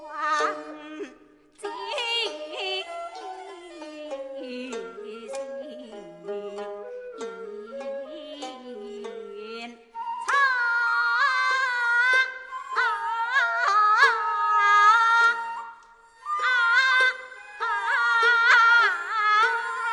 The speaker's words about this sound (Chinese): 这是南管当中最经典的曲子之一，全曲呢时长将近二十分钟，这里我们只听其中的一小段。